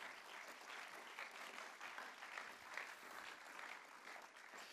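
Steady applause from an audience as guests come onto the stage, a dense wash of many hands clapping at once, sustained without pause for several seconds, with no voices rising above it.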